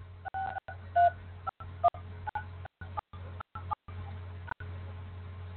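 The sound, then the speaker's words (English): A series of telephone keypad tones as a host PIN is entered on the Blog Talk Radio phone line, short dual-tone beeps pressed at an uneven pace over a steady low hum on a thin, phone-line-quality connection, with no talking. “Please enter your host pin. When finished, press the pound key.”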